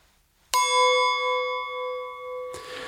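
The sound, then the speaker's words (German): A single clear, bright ring from striking a thick-walled drinking glass, with a sustained tone that lingers and slowly fades, followed by a brief rustle at the end. “Ja, und jetzt schlage ich noch mal gegen mein Glas.”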